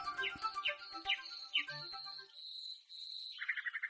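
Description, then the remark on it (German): A nightingale sings, pouring out rapid chirps and descending whistles, then a long sustained high note and a quick trilled flourish, with no voices. “Ein Jahr lang braucht ein junges Nachtigallmännchen, um von seinem Vater das Singen zu lernen.”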